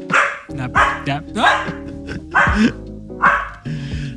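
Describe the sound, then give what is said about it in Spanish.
A dog barks repeatedly, about five sharp loud barks in an irregular rhythm, with a steady hum underneath. “No pasa nada, esperamos, esperamos a que termine de ladrar.”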